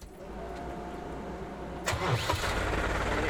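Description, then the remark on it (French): A steady low background rumble, then a car engine, just repaired, cranks and catches about halfway through, settling into a rough idle. No one speaks. “Allez, tu peux remettre le capot, enfin on quand même parce que. Mais ça doit marcher.”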